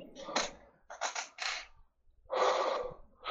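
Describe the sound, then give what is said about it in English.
A broken, stuck chair that will not lean back properly creaks and groans in several rough bursts as it is shifted and pushed back, with brief pauses between strained creaks and no one speaking. “Well, no, because now my chair's all fucked up and I can't lean back the right way, and it's like stuck, and I'm all- broken.”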